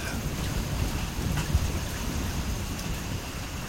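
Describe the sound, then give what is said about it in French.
Torrential rain pours down in the Amazon rainforest, a dense, steady roar of water hitting foliage and ground that fills the whole scene without letting up. “Soudain, une pluie torrentielle.”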